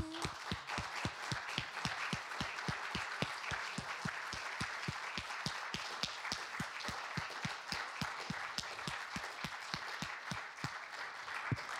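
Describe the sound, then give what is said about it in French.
A crowd applauds steadily for about twelve seconds, many hands clapping in a dense, fairly loud wash with sharp individual claps standing out, sustained without fading and with no voices. “On vous applaudit encore.”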